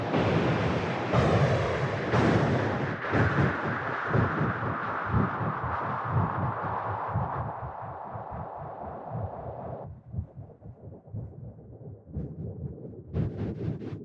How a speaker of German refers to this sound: Das klingt auch schon interessant, oder? Ja, aber es ist immer irgendwie halt Windgeräusch, irgendwie Sturm auf dem Neptun.